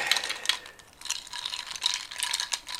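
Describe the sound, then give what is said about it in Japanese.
A copper muddler stirs a drink of Kahlúa matcha and milk, clinking and scraping against the glass in a quick, uneven series of bright, high-pitched taps, with no voices. “マドラー銅の銅でできてるマドラーですね綺麗なねこれを使って”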